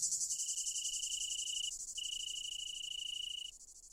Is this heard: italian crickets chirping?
yes